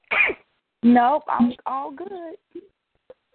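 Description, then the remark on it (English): A single quick, sharp sneeze bursts out, followed after a short pause by a person laughing lightly and speaking a few words. “Bless you.”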